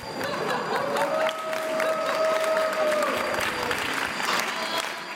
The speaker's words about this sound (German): Und beklatscht kurz darauf ihre Teenager